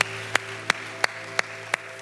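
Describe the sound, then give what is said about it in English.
Audience applause at a church service for three people who raised their hands: a steady wash of clapping with five sharp, evenly spaced louder claps standing out above it, no voices. “Can we give these three individuals that raised their hands an awesome and huge round of applause?”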